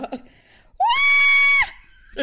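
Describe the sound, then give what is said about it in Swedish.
A voice lets out one loud, high-pitched excited scream, imitating a scream at a marriage proposal on Christmas Eve, sweeping upward and then holding steady for under a second, with brief bits of speech just before and after. “Vet du hur jag skrek?”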